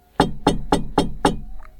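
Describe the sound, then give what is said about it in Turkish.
Five firm, evenly spaced knocks on a door, quick and steady, fairly loud, with nothing else but a faint brief sound after the last knock. “Kapıyı çalıyorsun.”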